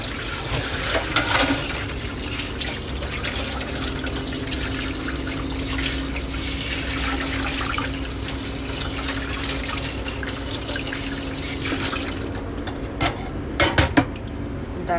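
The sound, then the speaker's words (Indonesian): A kitchen tap runs steadily while dishes are washed, including pots, an oil strainer and plates, with clinking and clattering; the water cuts off near the end, leaving a few sharp clanks. “Mungkin abis ini aku ngomong nggak nggak bisa dengar suara suara ada suara air.”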